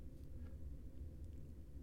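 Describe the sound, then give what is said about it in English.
Wind blows through bare trees on a cold day with snow on the ground, a steady, low, hollow rumble, quiet and continuous, with no voices and no distinct gusts or other sounds. “The only sound is of the wind blowing through the bare trees.”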